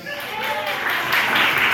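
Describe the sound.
A crowd applauds in a dense, steady wash of clapping that swells slightly toward the end, with a murmur of voices mixed in.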